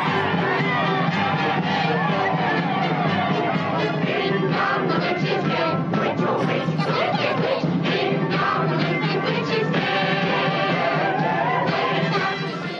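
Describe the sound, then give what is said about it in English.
A group of people in a basement cheers and shouts together just before New Year's, saying goodbye to the year 2020, a dense, loud wash of excited voices with whoops rising out of it, sustained steadily for the whole stretch before tapering slightly at the end. “they were very happy here in the basement.”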